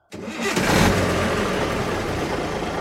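A large city bus engine cranks and catches, surging briefly before settling into a steady, rumbling idle, fairly loud with no voices.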